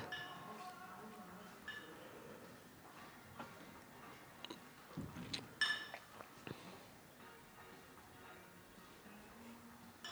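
Cutlery and place settings clink and tap as they are brought to a table and set down, scattered light knocks with a brighter cluster of clinks midway, over a faint background murmur of voices.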